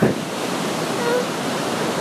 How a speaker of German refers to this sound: Ja, da ist der Wasserfall. Jetzt sehe ich ihn der berühmte Wasserfall Suchuruma. Ganz schön voll jetzt gerade und schön.